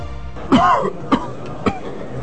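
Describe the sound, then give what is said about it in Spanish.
Three sharp coughs ring out in a pharmacy, the first heavier and drawn out, followed by two shorter, spaced bursts over a quiet background with no talking. “¿El doctor de la tos?”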